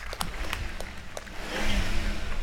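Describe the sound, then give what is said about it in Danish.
A 1978 Pontiac Trans Am car engine revs, its deep rumble building and growing louder partway through, with a few short clicks and taps early on. “Kan du ikke lige give den gas”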